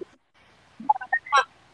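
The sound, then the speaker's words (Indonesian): A duck quacks in a quick run of several nasal, honking calls, clear, with a brief soft noise just before and no talking. “Apa sih bebek?”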